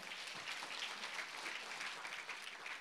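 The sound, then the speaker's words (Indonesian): A church audience breaks into sustained applause for God, a dense, steady wash of many hands clapping without pause for a few seconds, with no voices rising above it. “Boleh tepuk tangan buat Tuhan.”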